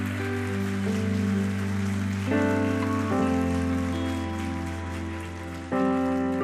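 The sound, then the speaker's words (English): A church audience gives the Lord a clap offering in a steady, dense wash of applause, with sustained keyboard or organ chords shifting underneath throughout. “Can we give the Lord a clap offering for people saying yes to Jesus?”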